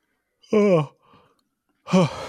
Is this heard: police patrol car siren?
no